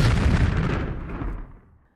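A single loud bomb blast booms out, a heavy rumbling roar that rolls on for over a second before fading away into quiet: the bomb the terrorist Kalyaev threw at the carriage of Grand Duke Sergei Alexandrovich near the Nikolaevsky Palace in the Moscow Kremlin on 4 February 1905. No voices accompany it.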